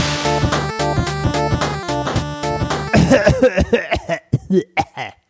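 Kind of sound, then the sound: human body sound, coughing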